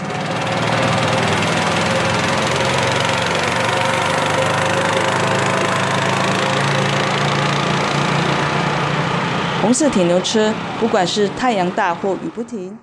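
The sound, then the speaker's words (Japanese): A small red farm transport vehicle, called a red iron cow, drones loudly and steadily with a rough, buzzing rumble as it runs in the mountains carrying fruit. In the last few seconds a person starts talking over the running motor. “赤い鉄の牛は都会を走ることはできませんが、山の上では美味しい果物に舌鼓を打った人たちの笑顔をいっぱい積み込んで走ります。”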